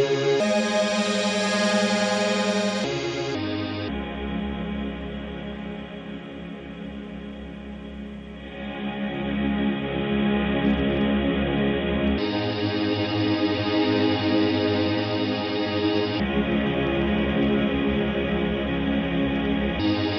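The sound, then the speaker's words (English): A dense, smeared musical loop washes through heavy reverb, its sustained tones blurring together with a shimmering, echoing tail; the texture shifts in sections but stays loud and continuous, with no voices. “so it kind of smears out your loop, which is pretty cool. Let's put that through the reverb.”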